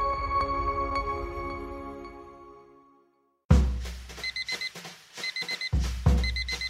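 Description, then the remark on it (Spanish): An alarm clock goes off with bright electronic beeps in quick bursts of four, repeating steadily over some low thumps, after a fading musical chime. “Suena el despertador.”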